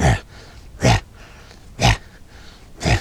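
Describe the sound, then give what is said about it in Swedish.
A person imitates two wolves panting as they swim across a lake, like a swimming dog: four loud, breathy huffs, evenly spaced about a second apart, with quiet breath noise between them. “Så jag hör liksom hur de flåsar så här, som en hund som simmar.”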